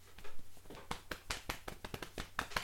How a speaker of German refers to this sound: Selbstlob. Jetzt dürfen wir uns gegenseitig mal kurz auf die Schulter klopfen.